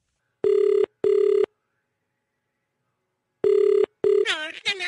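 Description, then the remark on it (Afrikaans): A telephone ringback tone sounds in paired bursts on an outgoing call to the municipality, two rings, a pause, then two more, clear, before a voice starts talking at the end. “Laat ek nou die munisipaliteit bel.”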